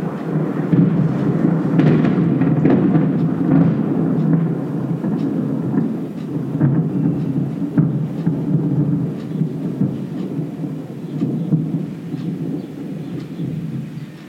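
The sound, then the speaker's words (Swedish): Deep, continuous thunder rolls and rumbles through a steady rainstorm, the low roar swelling and easing over time with rain hissing beneath it. No voices. “Vi lyssnar på åskan och tar in känner kraften i naturen.”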